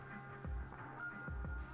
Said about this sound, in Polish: Mam nadzieję bez kitu, że, że nie słychać tego odkurzacza, bo to jak na złość.